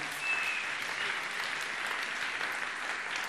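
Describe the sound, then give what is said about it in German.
An audience claps steadily as applause for God, a dense wash of many hands that holds at an even level from start to finish without a clear build or fade. “Applaus für Gott.”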